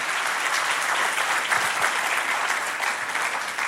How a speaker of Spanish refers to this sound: Aleluya, dale un fuerte aplauso. Todo el apasionado por Cristo, dele un aplauso.